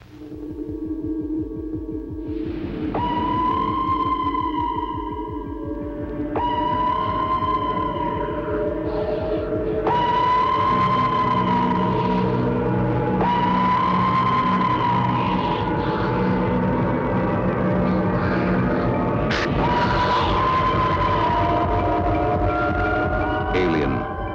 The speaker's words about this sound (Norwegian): Men da over til Alien. Vi hører traileren.